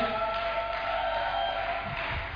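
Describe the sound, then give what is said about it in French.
A large audience at a church service cheers and shouts together in a dense, steady roar that fills the whole stretch, loud, with no single voice standing out. “Plus l'acclamation, s'il vous plaît.”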